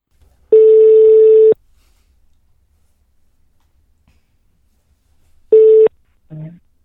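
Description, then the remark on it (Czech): A telephone ringing tone on a call placed from Radio Frakce: a steady mid-pitched beep about a second long, a few seconds of silence, then a second beep cut short as someone answers with a brief word. “já tady volám z, z Radia Frakce.”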